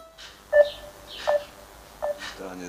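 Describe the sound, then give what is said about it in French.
Three short electronic phone tones repeat at a steady pace as a call to a 74-year-old man caught amid the fighting in Ukraine rings out with no one picking up, heard at moderate volume against faint background noise. “Alexandre essaie de joindre son père, qui se retrouve coincé, à 74 ans, au milieu des combats en Ukraine”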